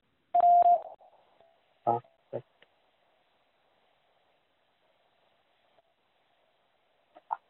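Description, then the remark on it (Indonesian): A single short electronic beep sounds near the start, a steady mid-pitched tone prompting a quiz player to answer, followed by a couple of brief bursts and long near-silence before a faint final sound. “Silakan jawab setelah nada berbunyi.”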